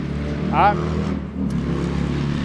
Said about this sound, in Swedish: Där kom det en motorcykel också. En riktig badboy.